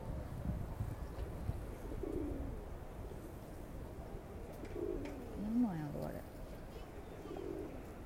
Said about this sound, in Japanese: 鳩も恋の季節なんかな私もあんまよう知らんけど威嚇してんのそういう感じじゃないと思うんだけど